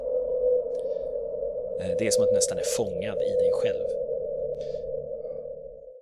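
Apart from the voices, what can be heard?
52-hertz whale call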